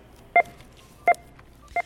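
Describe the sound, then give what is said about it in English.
Three short electronic beeps at a steady pace, each a clean mid-high tone with a faint overtone, standing out clearly over a soft background hum, from a checkout scanner reading items at a crowded Walmart store at Christmas time. “So this entire episode is 100 seconds long, and there were exactly 150 beeps.”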